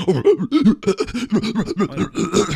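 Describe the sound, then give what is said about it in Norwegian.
A person imitates a pig, making a quick, rhythmic string of about ten short, throaty grunts, fairly loud, with no talking. “Det var grisen min. Det var grisen uh, ja. ja. Det er sånn lyd eh, griser lager.”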